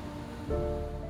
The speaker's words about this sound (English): After the explosion, all is quiet, and the water from the underground lake laps gently on the shore.